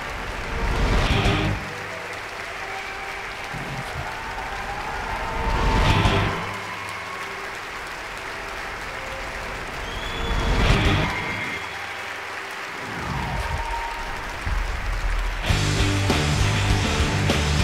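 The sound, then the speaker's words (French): A crowd claps steadily throughout to welcome the guest Chucky from Jeux d'enfants (Child's Play), swelling in a few louder bursts and growing denser and more intense near the end. No one speaks over it. “Je vous demande un tonnerre d'applaudissements pour Chucky, Charlie Ray, de Jeux d'enfants.”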